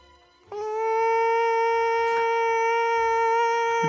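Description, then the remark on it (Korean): Nam Chang-hee imitates an ultrasonic bug repeller by mouth as a bug-chasing cheer: a single loud, steady, buzzy whine, held for about three and a half seconds at an unwavering pitch before dipping slightly at the very end. “입으로 낸 소리입니다.”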